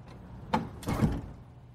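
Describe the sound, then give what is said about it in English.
A recording booth door with no handle on the inside swings and shuts with a sharp knock, followed by a brief rattling, sliding clatter as it settles closed, with no talking. “Hey, why is there no handle in here? the door. It won't open from the inside.”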